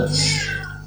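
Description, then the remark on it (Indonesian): A cat that has just come in gives one drawn-out meow, loud, its bright tone sliding downward as it fades over less than a second. “Ini suara kucing. Kucing masuk.”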